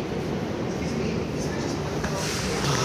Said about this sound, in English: what's more iconic than the uh, New York subway?